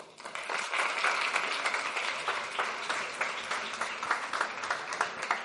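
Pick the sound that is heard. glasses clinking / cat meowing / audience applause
audience applause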